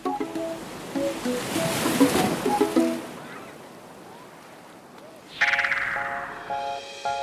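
A wash of ocean surf swells and crashes for a few seconds, then recedes into quiet before a bright, chiming musical tune comes in over fainter rushing water.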